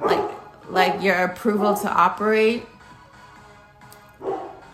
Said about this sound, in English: Gonna shut up. Sorry, that was my dog.